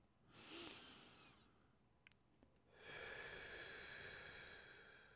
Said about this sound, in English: Um, let's just concentrate on our breathing right now.